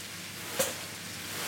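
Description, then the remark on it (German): Onions and bacon sizzle steadily in a heavy pan as a cook in Germany's Rhön region stirs them with a wooden spoon and swirls the pan, a constant hiss broken once by a short clack of stirring partway through. No one speaks. “rührt die Zwiebelspeckmischung mit einem Holzlöffel um und schwenkt die schwere Pfanne immer wieder mit einer Hand.”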